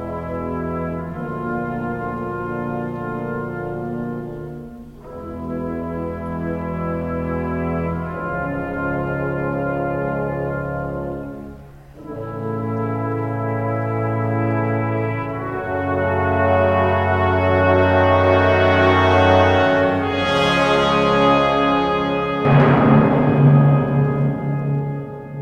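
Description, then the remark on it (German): Slow, solemn orchestral brass chords at the opening of the second movement of Dvořák's Ninth Symphony, held for several seconds each, moving from one chord to the next and swelling to a brighter, louder climax near the end. No voices. “Am Anfang des zweiten Satzes von Dvořáks neunter Sinfonie erklingen erhabene Blechbläserakkorde.”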